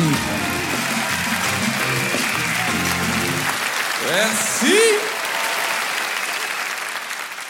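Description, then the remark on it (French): Steady audience applause at the Montre Comédie audio edition, welcoming the next comedian, a dense wash of clapping from start to finish while a man speaks over it briefly near the start and says a short word midway. “Préparez-vous maintenant à accueillir notre prochain artiste et faites du bruit où que vous soyez”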